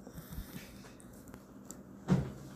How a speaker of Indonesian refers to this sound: nah sip udah deal ya ini deal ketok palu